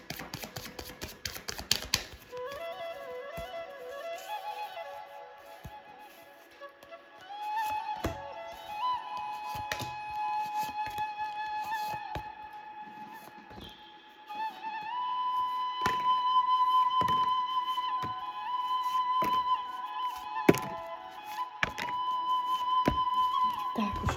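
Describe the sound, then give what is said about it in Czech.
Tarot cards being shuffled for a tarot reading for the year 2023: a series of sharp, irregular snaps and taps over soft sustained background music, with no talking. “A já už se dívám na vaši fotku, míchám u toho karty a my se spolu podíváme, co nám Tarot poví o období 2023.”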